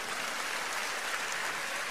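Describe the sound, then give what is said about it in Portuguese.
An audience applauds the termites, many hands clapping in a dense, even wash of sound that holds at the same moderate level for the whole two seconds, with no voices standing out. “Você pode aplaudir os cupins.”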